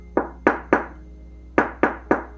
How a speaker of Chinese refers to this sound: 我瞬间停下开门的动作，吓到失去理智，对着门口大骂：“到底是谁一直在敲我的门啦？”